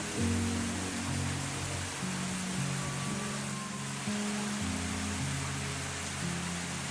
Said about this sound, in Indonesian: Aku terus berjalan, tidak peduli dengan air hujan yang semakin lama semakin ramai semakin deras.